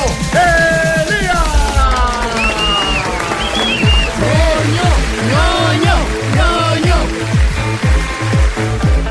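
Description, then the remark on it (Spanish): Loud, sustained crowd applause welcoming Bernardo Miguel, 'el ñoño', with dense, steady clapping for several seconds, mixed with shrill whistles and scattered cheering voices rising and falling over the din. “Recibamos entonces con un fuerte aplauso a Bernardo Miguel, el ñoño.”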